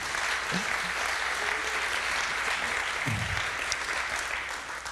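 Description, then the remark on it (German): Steady, dense audience applause fills the whole stretch, many hands clapping at a constant loudness, with a couple of brief low voice sounds poking through the clatter. A church audience applauds after a sermon, celebrating an absent member's wedding the day before. “Ich durfte sie gestern trauen und genau, meinen Abwesenheiten kräftigen Applaus dafür.”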